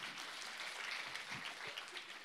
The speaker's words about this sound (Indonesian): Boleh tepuk tangan buat Tuhan, Saudara.